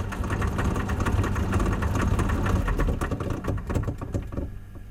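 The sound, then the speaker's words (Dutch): A mechanical monkey organ whirs with a steady low drone and dense, loud rattling clicks, then the clatter thins into scattered uneven clicks as the little monkey figures, which cannot all stop at once, stop one by one. “Dat, dat ratelen op het eind. Dat die aapjes niet allemaal tegelijk kunnen stoppen.”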